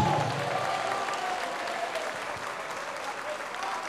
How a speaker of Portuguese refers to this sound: E vamos aplaudir ao Senhor Jesus e nos alegrar, porque este meu filho estava morto e reviveu, tinha se perdido e foi achado. Vamos aplaudir mais, porque está chegando mais.